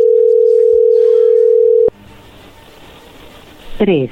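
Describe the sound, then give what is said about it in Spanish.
A phone call's dialing tone hums as one loud, steady low-pitched note for about two seconds, then cuts off with a click, leaving quiet hiss before a brief voice at the end. “a ver, ahí se está marcando, no haga ruido.”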